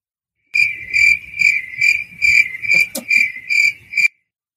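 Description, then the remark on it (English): A cricket chirps loudly, a shrill, steady trill pulsing in about eight quick bursts over a few seconds before stopping abruptly. No one speaks. “Kill that cricket fucking nugget.”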